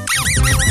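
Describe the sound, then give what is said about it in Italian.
A michetta bread roll fitted with a whistle, a novelty from an advertising agency, squeaks loudly as it is bitten into at the dinner table, in quick succession, three bright wavering tones that rise and fall in pitch over a low rumble. “gli ha portato delle michette di pane col fischietto”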